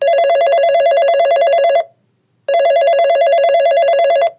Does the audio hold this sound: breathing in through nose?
no